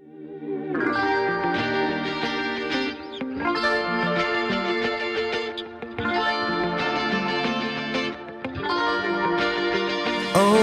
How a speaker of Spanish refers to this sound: la canción que vamos a escuchar es su primer single.